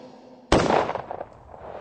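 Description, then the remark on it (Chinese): A single sharp starting-pistol crack for a 100-metre sprint race bursts out of near silence, then a roughly half-second rumbling echo trails away into quiet. “当你听到枪声后，就拼全力的向前跑，直到你碰到终点线为止。”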